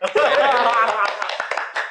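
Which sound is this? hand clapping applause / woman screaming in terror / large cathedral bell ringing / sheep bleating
hand clapping applause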